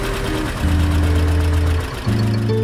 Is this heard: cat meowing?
no